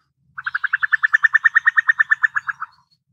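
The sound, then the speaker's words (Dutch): A female cuckoo's bubbling call: a quick, even run of about twenty liquid notes lasting a couple of seconds, loud, with nothing else in the background. “het geluid van de vrouwtjeskoekoek, dat is niet een geluid wat heel Nederland herkent.”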